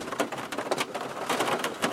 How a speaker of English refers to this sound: You can hear that uh, rain on the roof of the car.